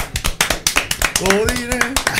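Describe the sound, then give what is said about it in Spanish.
Steady, brisk clapping from a small group, sharp claps in an even rhythm applauding a music group after their song, while a voice calls out over the second half. “un aplauso también por …”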